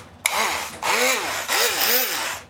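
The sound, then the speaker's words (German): A standard hand blender whirs loudly in steady pulses, its motor pitch dipping and rising as it purées about half a litre of tomatoes, starting abruptly and running for a couple of seconds. “Und jetzt nehmen wir einen handelsüblichen Pürierstab.”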